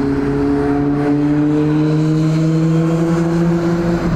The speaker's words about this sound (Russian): Только что, если вы могли услышать, а я увидел, проехал на довольно высокой скорости мотоциклист.